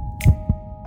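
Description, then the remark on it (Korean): A single heartbeat thuds close and deep, a low double thump in quick succession, sitting over a faint steady hum with no talking. “얼른 8시가 오기를 바라는 제 마음 들리세요?”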